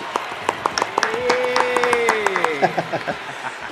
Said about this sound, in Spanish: Aplausos, por favor, aplausos.